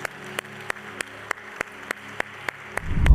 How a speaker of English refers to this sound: Come on, give a round of applause to those that made that decision.